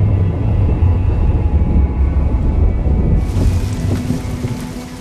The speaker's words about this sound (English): Rain.